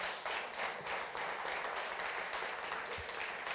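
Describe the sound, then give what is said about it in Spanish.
An audience at a church service breaks into steady applause for God, a dense wash of many hands clapping at an even level for several seconds with no voices on top. “Démosle un aplauso a ese Dios que nunca falla.”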